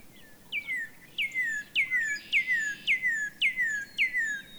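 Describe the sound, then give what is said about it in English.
A northern cardinal sings a loud series of about eight clear whistles, each sliding sharply downward, repeated at a steady, quick rhythm over a soft background hiss. “The first time I saw a northern cardinal in the wild, I was thrilled to finally see this gorgeous and iconic red bird in the flesh.”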